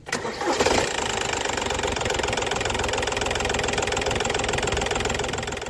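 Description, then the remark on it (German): A small three-cylinder VW car engine with an automatic transmission starts up and settles into a steady running hum with a slightly uneven, pulsing throb throughout. No voices are heard. “Motor und Getriebe werden exklusiv entwickelt für das Sparwunder. Drei Zylinder mit einer Automatik, die wildes Fahren unterbinden soll.”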